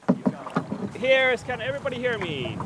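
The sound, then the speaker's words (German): Canoe paddling downstream on a river against a headwind gusting against the microphone, a few quick splashy strokes at the start, then a person's voice rising and falling over the steady wind noise. “Obwohl wir flussabwärts fahren, kommen wir nur schwer voran. Gegenwind. Wir müssen konstant paddeln, sonst treiben wir ab.”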